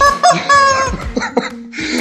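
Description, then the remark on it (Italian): A rubber chicken toy squawks loudly several times in quick succession, its shrill, wheezy honks rising and falling with brief gaps, with no one talking. “Si è scaricato il pollo di gomma?”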